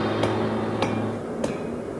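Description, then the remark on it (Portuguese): A power hammer pounds metal during rough forging on the forging competition show Desafio sobre Fogo América Latina: three heavy, evenly spaced blows over a steady mechanical hum, loud, with no voices. “Esse martelete vai ser uma verdadeira briga, porque todo mundo vai precisar usar ele.”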